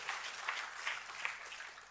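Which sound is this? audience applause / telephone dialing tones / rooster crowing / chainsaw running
audience applause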